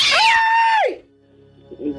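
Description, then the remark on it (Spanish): A single loud, drawn-out cat yowl rises into a harsh screech and slides down, lasting about a second, followed by near quiet with faint low background sounds. “Agárrame el gato y juega con él, Satanás.”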